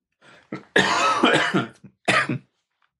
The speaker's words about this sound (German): Genau. Da musste ich mal husten.